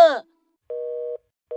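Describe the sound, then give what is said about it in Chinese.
A brief bit of a voice cuts off, then a phone's busy tone sounds as a call to Pirate Qiqi hangs up in a Chinese cartoon: a steady, mid-pitched dual-tone beep held for about half a second, a short gap, and another beep beginning. “电话挂断了，海盗小福和海盗壮壮一脸惊愕地看着海盗琪琪。”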